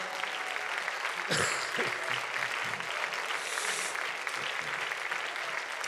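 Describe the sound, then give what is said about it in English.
A large group claps steadily together in a hand clap of praise during a sermon, a dense, sustained wash of applause at moderate loudness, with a few louder bursts and faint cheering in the mix. “So, all right, let's give him a hand clap of praise, and when you're done,”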